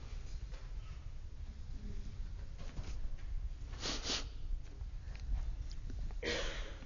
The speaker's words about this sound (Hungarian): Elnézést a szipogásért.